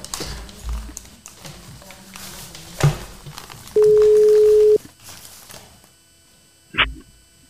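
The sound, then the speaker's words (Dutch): A single steady telephone ringing tone, from a call being placed to a magazine's new editor-in-chief, hums for about a second over a quiet, noisy phone line, with a few soft clicks and thumps before and after. “laten we hem gewoon even bellen. Dan kunnen we het aan hem zelf vragen.”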